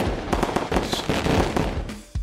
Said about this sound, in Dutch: het lijkt me wel iemand die vuurwerk afsteekt.